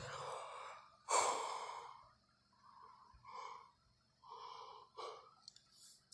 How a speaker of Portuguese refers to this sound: Agora o cansaço foi evidenciado no meu bocejo, como vocês puderam perceber.